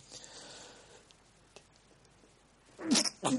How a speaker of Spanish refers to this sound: no sin antes estornudar un poco.